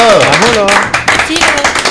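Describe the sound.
A voice talks at first, then a small group starts clapping: quick, uneven crisp claps running together for about a second while voices continue underneath.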